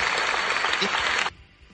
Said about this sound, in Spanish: Un aplauso, por favor, de toda la audiencia.